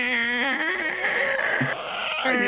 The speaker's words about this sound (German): ja, sie knarrt laut, als du sie öffnest.